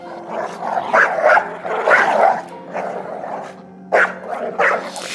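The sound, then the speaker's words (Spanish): Several dogs outside houses bark repeatedly in overlapping bursts, with drawn-out howling and whining tones between the barks, fairly loud, with no voices. “Afuera de las casas, los perros lanzaban ladridos y aullidos que enloquecían a los que los escuchaban.”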